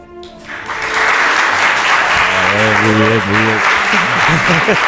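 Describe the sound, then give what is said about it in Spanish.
A crowd in Málaga, supporters of Rafa La Torre, bursts into loud, sustained applause that stays steady for several seconds, with cheering voices and shouts rising over the clapping partway through. “Vamos a medir el aplausómetro de Rafa La Torre aquí en Málaga.”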